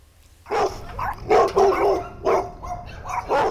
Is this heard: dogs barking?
yes